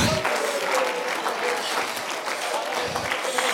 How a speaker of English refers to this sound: Why don't you stand to your feet? I want you to stand right now. Will you clap your hands and lift your voice unto a God that loves you?